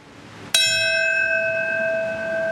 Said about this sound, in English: That sound was a bell in New York City to mark the moment the first plane hit the North Tower of the World Trade Center. It was the beginning of events around the country today marking the 20th anniversary of the 9 11 attacks.